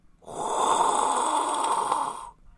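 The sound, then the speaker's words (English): A voice imitates the roar of a hot air balloon burner as a cable is pulled and a flame shoots high into the air: a single loud, breathy whooshing blast held steadily for about two seconds, then cut off. “Mrs. Maddox pulled on that cable, and a flame shot out high up in the air”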